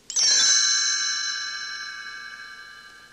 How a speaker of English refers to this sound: You will know it is time to turn the page when you hear the chimes ring like this.